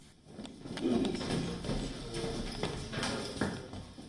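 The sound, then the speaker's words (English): Footsteps going down a flight of stairs into a 1950s bomb shelter at 83 Mezeryska Street in Kiev, Ukraine: a series of hard, clacking footfalls at an uneven pace, each a sharp tap, over a low background rumble. “The official in charge takes us down a flight of stairs.”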